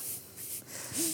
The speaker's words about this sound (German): Ähm, was ihr jetzt schnarchen hört, das ist der Hund